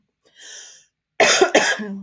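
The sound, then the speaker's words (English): A faint breathy intake, then two harsh coughs in quick succession, loud and raspy, trailing off into a short throaty hum. “Sorry, I got a cough.”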